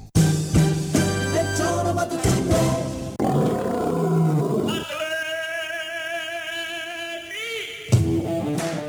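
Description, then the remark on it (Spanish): A loud lion roar in a radio advert for Atlético Yautepec football club tryouts, with deep growling rumbles and rising, wavering tones, lasting several seconds with no one talking, ending in a sharp burst. “No te pierdas la oportunidad de convertirte en un león.”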